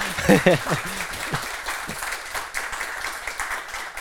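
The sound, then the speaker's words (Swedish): An audience breaks into steady applause for a guest's mother, a dense wash of clapping lasting several seconds, with a few cheering voices rising briefly at the start. “En applåd för mamma!”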